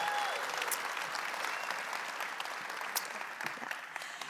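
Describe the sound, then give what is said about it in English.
An audience applauds and cheers for the moms on Mother's Day, a dense wash of many hands clapping at an even, loud level throughout, with a brief whoop rising above it at the start. “Let's give the moms one more cheer because honestly,”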